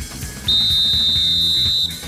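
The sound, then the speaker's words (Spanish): A referee's final whistle: a single long, steady high-pitched blast lasting over a second, loud and unwavering, over a low rumbling crowd-like background. “pitazo final, señoras y señores.”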